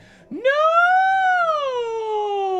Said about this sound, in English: A shrill scream exploded from my throat. Shrill, all right.